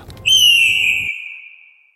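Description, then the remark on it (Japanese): A single long rooster crow, the first of the morning at dawn, rings out high and clear, holding one strained note that slowly sinks and fades, over a low background rumble that cuts off partway through. “あ一番鳥だ夜明けですね”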